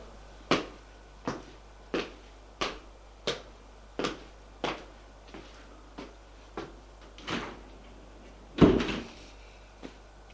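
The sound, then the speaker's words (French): A low steady mechanical hum runs beneath a regular series of sharp clicks, about one every half second, ending in a heavier door-like thud as the elevator ride finishes. Nobody speaks. “Puis va prendre l'ascenseur.”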